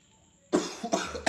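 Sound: coughing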